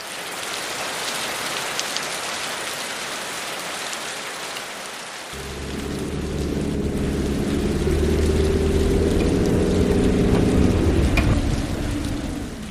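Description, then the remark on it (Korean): Steady, dense rain hisses throughout. About halfway through, a deep, continuous low rumble with a droning hum joins beneath the downpour and lasts nearly to the end. “어, 비가 오네요.”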